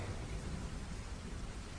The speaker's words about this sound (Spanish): detrás de los cristales, llueve y llueve.